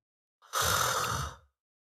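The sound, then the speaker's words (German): A single deliberate snore, made while awake with the head tilted back and the tongue relaxed: about a second of rough, fluttering breath with a rattling low rumble, alone without any talking. “Also da, da schnarche ich automatisch schon bei vollem Bewusstsein.”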